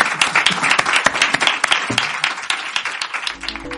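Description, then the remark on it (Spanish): An audience breaks into steady applause, dense overlapping claps at a lively volume, with a low tone creeping in near the end. “Un aplauso”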